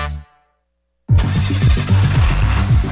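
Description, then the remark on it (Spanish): A Dongfeng truck engine turns over and catches after a brief silence, settling into a loud, throbbing low rumble with a steady pulsing rhythm. “negocio arranca con tu nuevo camión Dongfeng y Grupo Mavesa.”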